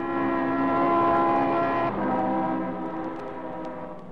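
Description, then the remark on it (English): A car speeds past with a loud, droning, horn-like tone that drops in pitch about halfway through as it goes by, then gradually fades away. No one speaks. “A car that ate up the distance between us as though we were attached by some invisible elastic that pulled us together.”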